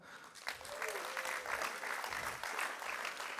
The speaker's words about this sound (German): Äh, geben wir ihnen mal einen grossen Applaus.